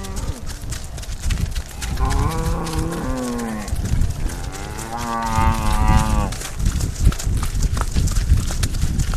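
Two long, drawn-out cow moos ring out in sequence, the second louder and closer, over a busy barnyard background of shuffling and clatter.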